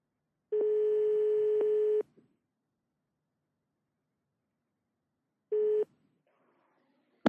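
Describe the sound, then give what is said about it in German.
A steady telephone ringback tone of a call from the Nobel Prize website in Stockholm to Thomas Südhoff, who is driving, sounds in two bursts, a long one of about one and a half seconds and a shorter one later, separated by silence, followed by faint line noise. “Thomas Südhoff fährt gerade Auto und bekommt den Anruf aus Stockholm.”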